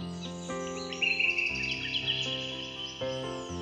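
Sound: birds chirping and singing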